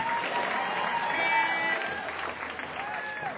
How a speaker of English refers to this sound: Please, a round of applause for all these performers.